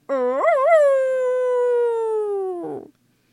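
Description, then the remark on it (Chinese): A single long wolf howl that rises with a brief wavering at the start, then holds a steady tone and slowly sinks, ending in a rough, breathy trail. Loud and alone. “狼最后这么长长的嚎叫了一声”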